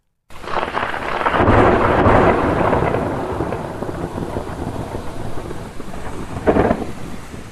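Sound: thunder rumbling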